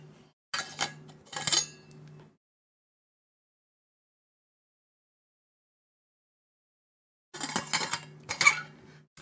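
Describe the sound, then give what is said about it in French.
Glassware and dishes clink and rattle in two short, busy bursts separated by several seconds of silence as someone takes a drink, with no voices. “Et je vais en profiter pour boire un petit coup pendant que je lis le chat.”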